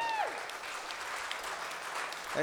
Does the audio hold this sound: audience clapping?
yes